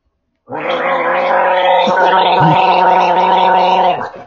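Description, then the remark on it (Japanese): A loud, vigorous gargle with GUM Well Plus liquid toothpaste held steadily for several seconds, a harsh throaty bubbling rattle that starts abruptly and cuts off near the end. “私ね、あの、ガム、ウェルプラスのね、この液体歯磨きを使います。ちょっとリッチに、行かしてください。”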